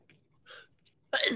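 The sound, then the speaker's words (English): A loud sneeze bursts out after a couple of soft, breathy inhales building up to it, with no talking around it. “Oh man, I got to sneeze.”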